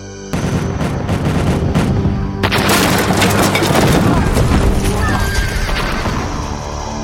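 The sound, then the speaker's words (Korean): Heavy cannon fire from many kinds of guns fired at once booms in a rapid volley during an assault on a walled town, swelling into a dense, loud roar of battle noise with horses whinnying and galloping in the mix. “아군이 성 아래로 진격하여 다가가서 여러 종류의 화포를 한꺼번에 발사하니 그 소리가 천지를 진동하고 연기와 불꽃이 허공에 솟구쳐 싸웁니다.”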